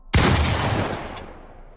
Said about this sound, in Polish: Strzał. Donowi wydawało się, że ogłuchł. Tuż obok niego ktoś pociągnął za spust dubeltówki.